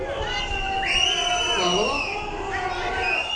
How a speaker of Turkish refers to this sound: Bugüne kadar durumu görmezden gelen Sırbistan Başbakanı bugün Novi Pazar'a gitti. Halk hastane önünde açıklama yapan başbakanın konuşmasını ıslık ve yuhalamalarla böldü.